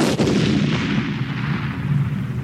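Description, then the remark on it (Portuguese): A loud explosion sound effect bursts at the start and rolls on as a dense, rumbling roar that slowly fades, with no voices over it. “Caraca, som de explosão, minha coisa explodiu agora.”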